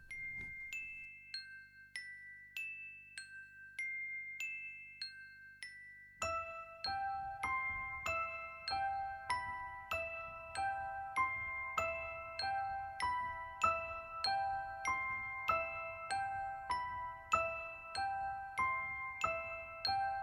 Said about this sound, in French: Allez, je vous mets un petit peu une petite musiquette d'attente,